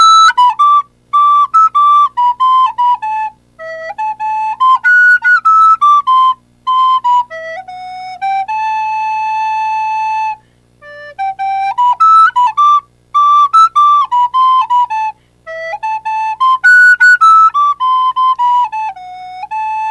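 A solo recorder plays the Doraemon theme song, a bright, high, bouncy melody in short phrases separated by brief pauses, with one long held note midway. No one speaks.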